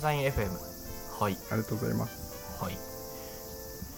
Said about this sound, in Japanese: すごいセミが鳴いてますよ外ですごい鳴いてるあ本当だ夏だねちょっとセミが入っちゃいますセミが入っちゃうあセミの声が